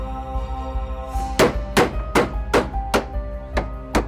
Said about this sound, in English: Benny closed his eyes as the first nails were put into place. He managed to make it through the hammering okay